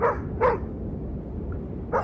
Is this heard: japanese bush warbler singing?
no